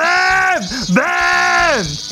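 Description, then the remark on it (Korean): A man's voice loudly imitates a cicada, a sustained, strained buzzing drone that dips and wavers in the middle, then swells again before sliding down at the end. “귀엽게 맴맴이 아니라 맴맴맴맴”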